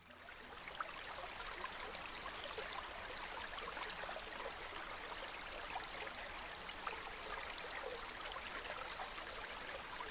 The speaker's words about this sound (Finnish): No ihan ensimmäisenä äänenä mulla on veden ääni. Lähinnä semmoisen niin kuin solisevan puron ääni.